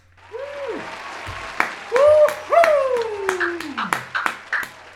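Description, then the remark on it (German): A short burst of applause: sharp, scattered claps build up and continue irregularly, mixed with a few swooping, falling whoops or cheers at the start. “An der Stelle nochmal einen kurzen Applaus.”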